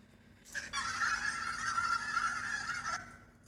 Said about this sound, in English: Look at all those chickens. Look at all those chickens.